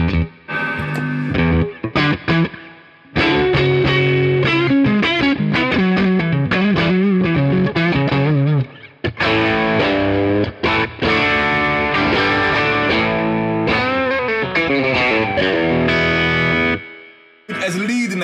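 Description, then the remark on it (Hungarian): An electric guitar played through a Tube Screamer overdrive pedal, loud, strumming mildly crunchy chords and short riffs for most of the stretch, with a few brief pauses between phrases. “egy picit kevés torzítás lenne nekem”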